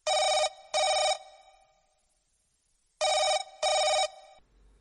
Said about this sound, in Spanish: Perdón, perdón, perdón, perdón. Ha vuelto a ocurrir otra vez esta llamada intempestiva. Seguro que es el mismo señor que llamó el programa anterior, no sé si lo escuchasteis. Un señorín con acento argentino.